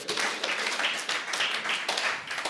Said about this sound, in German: Komm, wir geben dem Mann Applaus. Hey.